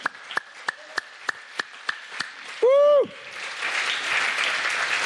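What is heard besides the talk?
audience clapping hands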